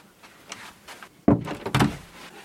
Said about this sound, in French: Donc là, c'est clairement une porte de clôture, en fait, cette porte-là.